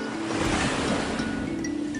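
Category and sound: nature, sea waves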